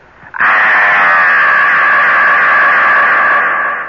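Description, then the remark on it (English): A single loud, sustained scream begins abruptly and holds at a steady high pitch for over three seconds, with a reverberant echo effect washing over it and no speech. “will you give me a little echo chamber here, please”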